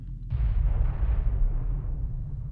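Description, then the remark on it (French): A gunpowder barrel beside a cannon on Bird Rock explodes after a spark falls into it from a lit rag. There is one sudden, heavy blast, followed by a deep rumbling roar that lingers and slowly fades over a couple of seconds. “Il allume le chiffon, puis il y a une petite étincelle qui tombe direct dans le baril à côté du canon. what goddamn d'explosion.”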